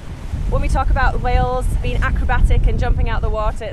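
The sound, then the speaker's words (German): Strong headwind roars steadily past the whale-watching boat Blue Thunder as it heads out onto the open ocean, a dense low rushing buffet that never lets up, with a woman's raised voice shouting over it about the gray whales throughout. “Gegen den Fahrtwind anschreiend klärt sie über die Wale auf.”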